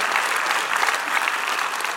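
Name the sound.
audience clapping hands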